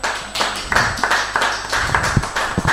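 Applause from a small group: quick, overlapping claps in a steady, fairly loud patter that continues without pause and without any voices.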